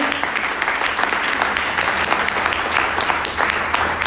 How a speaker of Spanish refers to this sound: Alguien dice amén en esta tarde y le aplaude fuerte a nuestro Dios.